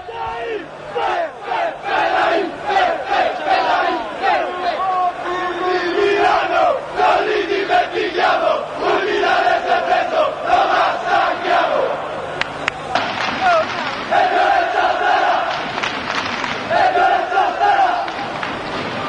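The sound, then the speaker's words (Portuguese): A massive stadium crowd of football ultras, the Fedain, chants three songs in unison, loud and continuous, with the melody shifting to a new chant partway through amid a dense roar of voices. “Foram três canções aí que a gente ouviu e eu contextualizo, né?”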